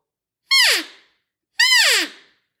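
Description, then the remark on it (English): Two short, loud elk mews blown on an open reed call, each a nasal, harmonic squeal that slides sharply downward in pitch, separated by about half a second of silence. “I can make a mew out of it still.”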